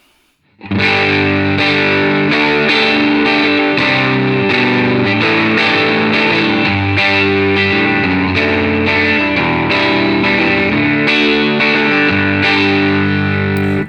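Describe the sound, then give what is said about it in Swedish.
Overdriven electric guitar in the middle pickup position, played through a Benson preamp with some gain, playing steady strummed chords with a thick, distorted tone that rings out loud and continuous from start to finish with no voices. “Här hade jag önskat att det fanns en separat volym till halsmicken, för det hade jag velat dra ner lite på mellanläget.”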